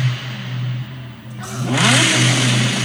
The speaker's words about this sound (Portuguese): É a primeira vez que ouvi o R8, já com o escape novo. Escape novo? Vou mostrar. Ouçam isso, rapaz.